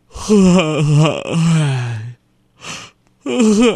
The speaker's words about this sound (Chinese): 你怎么又开始打哈欠了？